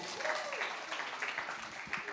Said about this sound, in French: Est-ce qu'il y en a qui sont bons avec les dates Vous pouvez lever la main Et bravo, est-ce qu'on peut les encourager, les applaudir